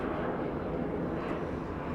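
airplane flying overhead

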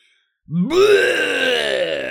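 creature roar sound effect

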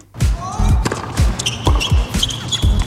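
ball bouncing

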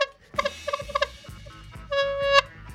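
seagulls calling

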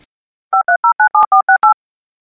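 telephone dial tone

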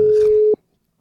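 telephone ringing tone

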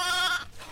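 goat bleating

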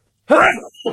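sneeze

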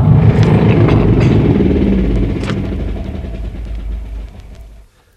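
vehicle engine running

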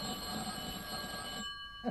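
telephone bell ringing

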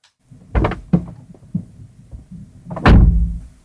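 car door closing

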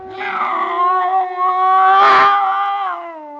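cat

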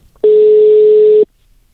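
telephone ringing tone

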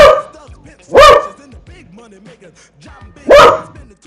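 dogs barking

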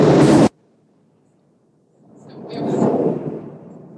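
thunder rumble

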